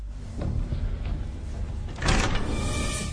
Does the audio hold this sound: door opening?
yes